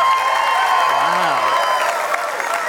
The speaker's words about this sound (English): would you help me and make an obnoxious noise in welcoming